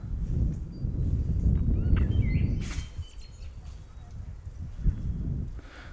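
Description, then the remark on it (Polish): Light spring gusts of wind rumble and buffet against a microphone connected to an iPhone in uneven surges, easing and swelling again, with faint bird chirps in the background. “Słychać trochę podmuchy wiatru.”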